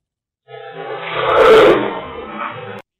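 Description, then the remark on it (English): A heavily amplified, distorted EVP recording, amplified to its maximum: a low, growling voice-like sound, thought to say "kill eight", swells and fades over about two seconds, wrapped in harsh white noise and hiss, played alone and loud. “that's the thing about looking for EVPs; they're not always crystal no, clear. There's a lot not, of white you know, noise”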